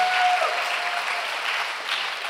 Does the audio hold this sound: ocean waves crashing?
no